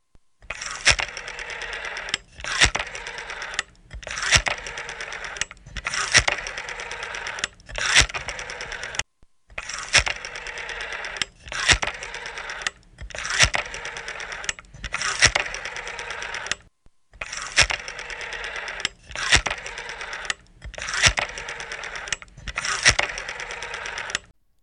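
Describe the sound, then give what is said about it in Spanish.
The ringing tone of an outgoing phone call to another member repeats in steady, buzzy bursts of about a second each, evenly spaced with a couple of slightly longer pauses, and no one speaks over it. “Vamos a pegarle un toque al que, bueno, fundador de, del Vamos a ponerle un toque a, a Isasi a ver cómo, cómo está.”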